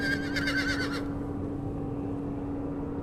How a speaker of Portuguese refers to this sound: Quando você toca na carta, você escuta um cavalo.